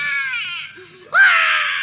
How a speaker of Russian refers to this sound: Ребенок. Бедная малютка, как она плачет. Ай-яй-яй-яй-яй. Ясное дело, заброшенный младенец.